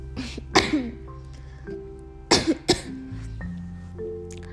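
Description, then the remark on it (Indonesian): Several sharp coughs in a quick irregular series, loud against a quiet background with a faint steady hum. “maaf batuk oke okay.”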